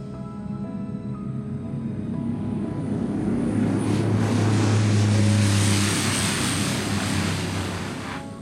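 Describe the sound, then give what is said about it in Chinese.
An airplane takes off, its jet engines building into a loud, steady roar with a deep low drone and a hissy high edge that swells midway and then eases slightly. No one speaks. “还记得上一集音频带着大家登机，那这一集就要准备带大家起飞喽。”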